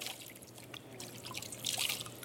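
Water sloshes and drips softly as hands move in a basin, with small trickling splashes that swell briefly near the end, quiet, with no voices.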